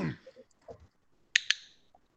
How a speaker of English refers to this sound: Yeah, it is a dog clicker actually.